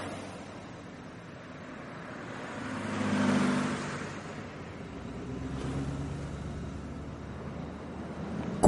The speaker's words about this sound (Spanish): Un coche pasa por la carretera.